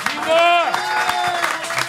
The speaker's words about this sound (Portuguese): Vamos, vamos aquecer a plateia aí, vamos todo mundo bater palma. Uhul!